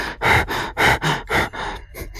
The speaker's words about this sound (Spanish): Y cuando le preguntas ahora, su mirada está perdida. Su respiración agitada.